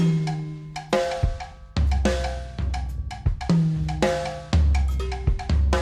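Latin jazz with bright, sharp percussion hits, cowbell-like strikes and accents landing every half second or so over sustained piano and bass tones, loud and rhythmic, with no voices.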